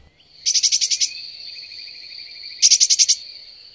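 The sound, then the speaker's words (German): A bird perched on a branch chirps in two quick bursts of rapid, high-pitched notes, linked by a thin sustained whistle. The song is clear, with no voices. “Sie wollen mir jetzt nicht erzählen, dieser Vogel dort verletzt das Urheberrecht, äh, weil sein Gezwitscher mit sehr viel Fantasie als”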